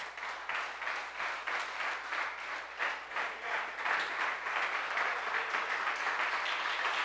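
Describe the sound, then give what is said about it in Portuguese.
An audience, asked to stand, applauds for Jesus steadily for about seven seconds, dense overlapping claps that swell slightly louder toward the end, with no voices standing out above it. “Fique de pé e vamos aplaudir Jesus.”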